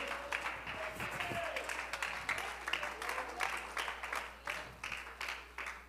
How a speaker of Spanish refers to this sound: Alguien puede brindarle una alabanza y un aplauso al que vive.